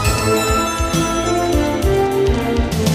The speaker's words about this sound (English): So one bell without music and then seven with music. Let's listen. There's the first bell, and now the cue two, three, four, five, six, seven, eight o'clock.